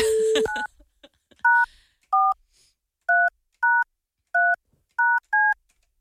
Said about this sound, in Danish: Jeg håber, det er det rigtige nummer, jeg har tastet uh-uh. ind.